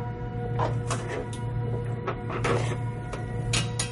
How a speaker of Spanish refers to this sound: Marsa, a tientas, intenta golpear con el extremo del filamento metálico el cerrojo de la puerta.